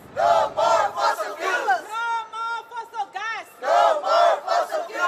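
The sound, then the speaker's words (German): Climate activists chant slogans in loud, rhythmic bursts, voices rising and falling in a repeated cadence, with low drum thumping early on beneath the shouting. “Sprechchöre mit Trommeln.”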